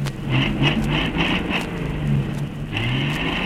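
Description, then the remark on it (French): Car engines at an international automobile rally in sunny La Baule, near the casino, rumble and rev in overlapping bursts, with loud low-pitched roaring and short rising whines, over a dense, noisy wash of traffic sound with no talking. “Toute cette jolie ville est un cocktail de soleil et de pétarade de moteurs.”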